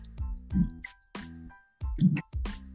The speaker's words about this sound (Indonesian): Nah, iya, agak. Sebenarnya sih nggak sadar sih, tapi kalau pas lu ngomong gitu, jadi gue menyadari ada suara galon yang blubuk-blubuk gitu kan.